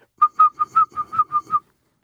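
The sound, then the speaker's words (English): Someone imitates a male cicada's second courtship call, which lacks the gap of the first call. The whistling is a quick run of about eight short, even pulses in steady rhythm, clear and fairly loud, with no talking around it. “He'll go into a second call. It's sort of like doesn't have that gap in it.”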